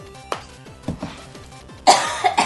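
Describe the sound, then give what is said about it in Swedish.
Several short, dry coughs from a person come in uneven bursts, building to a louder, harsher hack near the end, set against a faint, steady tonal background with no talking, at a home in Frölunda, Gothenburg, Sweden. “Jag, jag känner att jag behöver hosta.”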